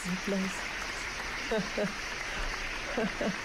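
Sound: applause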